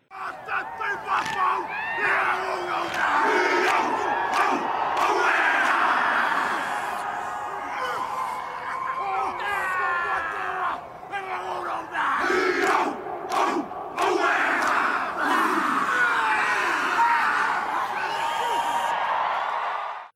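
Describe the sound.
A Maori haka war chant performed by a rugby team: many male voices shouting rhythmic, forceful calls in unison, loud, sustained throughout with brief pauses and crowd noise behind.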